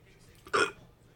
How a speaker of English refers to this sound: Sorry, I just wanted to register a burp on the podcast.